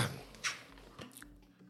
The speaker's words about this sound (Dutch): Oh, sorry, even een slokje water.